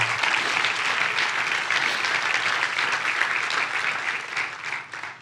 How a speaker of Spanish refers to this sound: Dale un fuerte aplauso a Dios por eso.